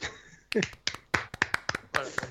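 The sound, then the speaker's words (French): A lone person applauds themselves, clapping their hands about ten times at an uneven, slightly quickening pace, crisp, with a brief vocal sound near the start. “je m'applaudis moi-même, j'en ai rien à foutre.”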